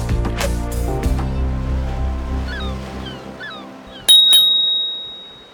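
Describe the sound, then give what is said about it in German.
A bicycle bell on a rental bike from the bike station in front of a tourist information office rings with a bright double ding and a long fading tone, preceded by low rumbling and a few faint chirps like birds in open outdoor air. “So klingen die Fahrräder, die von der Radstation vor unserer Touristinformation stehen.”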